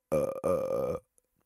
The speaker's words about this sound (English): Burps sound like that. Wait, actually, burps sound like this. Man, that's a crazy burp. It's like got that second tone coming in there. Like, what is that? That burp really is gross and disgusting.